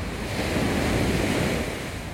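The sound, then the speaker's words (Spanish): Ocean waves breaking on a morning that is not very windy, a steady broad wash of surf that swells and rushes without pause, with some wind noise on the microphone and no voices. “Eh, también linda esa ola rompiendo hoy.”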